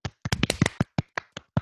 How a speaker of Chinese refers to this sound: 好，我们的传统鼓掌。